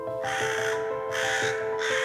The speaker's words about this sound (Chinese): 当傍晚来临，乌鸦飞过了屋顶，